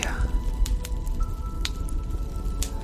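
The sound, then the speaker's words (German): A soft, steady fire crackle: scattered sharp pops and snaps at irregular intervals over a low, continuous rumbling bed, moderately quiet, with no one speaking. “Vielleicht hörst du das leise Knistern.”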